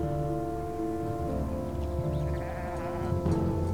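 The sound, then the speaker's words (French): A flock of sheep bleating in overlapping, wavering calls, several animals at once, steady throughout with no talking, as the flock moves onto a path a few meters away. “Un nouveau bêlement, puis un second, et ce fut tout un troupeau de moutons qui s'engagea sur le sentier à quelques mètres de lui.”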